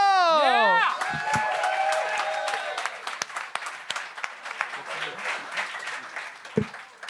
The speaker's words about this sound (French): Ah non, le prochain, c'est un humoriste que j'adore. Mesdames et messieurs, un tonnerre d'applaudissements pour Max Richard!